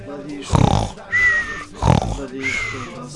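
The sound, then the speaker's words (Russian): On a radio broadcast, a person imitates the city of Ufa snoring in its sleep: two loud, rough snorting inhales, each followed by a whistling, wheezy exhale, in a slow rhythmic cycle. “Я слышу, как храпит Уфа.”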